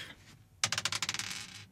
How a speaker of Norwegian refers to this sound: Se her. Vi triller terning okay.